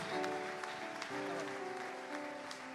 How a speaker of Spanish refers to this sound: Así que yo le pido que dé un aplauso de alabanza a Dios, pero que se escuchen todas las manos de la iglesia, hermano, porque para Él sea la gloria, la honra, por los siglos de los siglos.